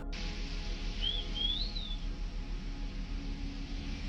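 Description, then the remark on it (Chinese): A short, high whistle of about a second, sliding up then gently falling in two connected notes, heard over a steady low hum and hiss with no talking; a recording of purported paranormal whistling in a room at 10:24 pm on Saturday, 10 December 1977. “好，一九七七年的十二月，这就十二月了哈， 嗯 八月份开始的，十二月十号那天是星期六，晚上十点二十四分，在一个房间里面，突然一下， 凭空的有人吹口哨，这段也有录音， 嗯 就这种声音。”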